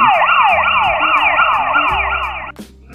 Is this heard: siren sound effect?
yes